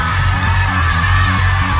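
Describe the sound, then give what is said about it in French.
A loud, dense crowd roars and shouts continuously, a wall of many voices with low, sustained tones that sound like booing and jeering in displeasure. “Et ils gueulent, les gens, ils sont pas contents.”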